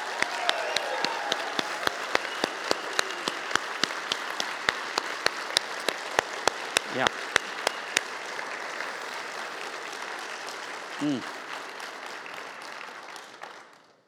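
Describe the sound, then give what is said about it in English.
A room full of people gives a Missio applause to honor the Bent Creek people, with dense sustained clapping and a few sharper individual claps standing out, fading out after about fourteen seconds with a brief voice midway. “So, can we really quickly honor the Bent Creek people with a Missio applause?”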